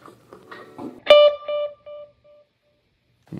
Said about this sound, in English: So uh, so this is kind of the sound. So you get that uh, the kind of you know delays kind of cascading, bouncing off each other. I'm using an, uh, a Line Six Echo Pro, and this is the delay it's doing.